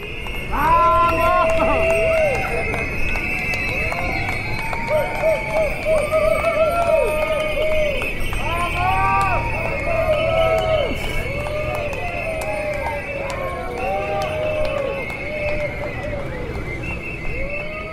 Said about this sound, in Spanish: Cuando los 111 ciclistas llegaron al punto final de la obra, la Estación Museo Nacional todo lo que encontraron fue aplausos.